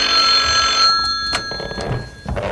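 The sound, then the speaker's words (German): A telephone rings loudly, a bright trilling bell that sounds for under a second before giving way to brief knocks and handling sounds, with no one speaking. “klingelte bei Beefy Tremaine das Telefon”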